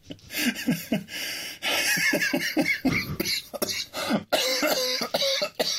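Someone coughs from cigarette smoke in a run of harsh, raspy bursts, loud and uneven, with a brief pause before the hacking resumes.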